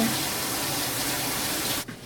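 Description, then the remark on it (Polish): A lemon is rinsed under a running hot tap, giving a steady rush of water that continues for nearly two seconds and then cuts off abruptly. “Tłuczę ją pod gorącą wodą.”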